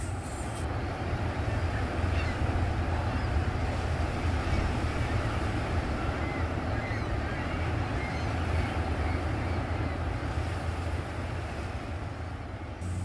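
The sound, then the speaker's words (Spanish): Sea waves at the bay of Santa Marta, Magdalena, wash onto the shore in a steady, continuous rush with a deep low rumble and windy hiss, holding an even loudness throughout with no distinct individual breakers and no voices. “Pues mi despertar y por qué no decir casi todo mi día está en torno al mar.”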